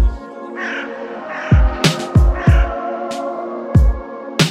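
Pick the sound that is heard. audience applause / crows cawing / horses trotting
crows cawing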